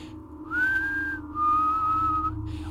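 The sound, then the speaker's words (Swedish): A person imitates a whistle by whistling two steady tones, a higher note followed by a slightly lower, longer one, clear over a low background hum. “Men så kom jag halvvägs och så bara från skogskanten, ja, vi kanske snackar 10 meter in i skogen så hör jag hur tydligt som helst att någon bara börjar göra som en, ja men det kan varit två toner vissling så här bara.”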